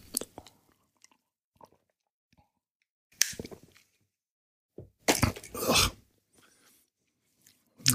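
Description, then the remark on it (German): Sips and swallows of warm coffee: a few short, wet slurping bursts and gulps separated by quiet pauses, with no talking. “Naja, immerhin, ähm, auf die Weise habe ich noch einen Schluck warmen Kaffee bekommen.”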